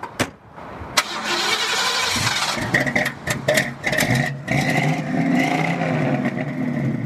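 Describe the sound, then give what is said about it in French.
A Ford Mustang engine cranks with a few sharp clicks, then starts and settles into a loud, throaty rumble with revs rising and falling, without any voices. “tout le monde s'achète pas une Mustang.”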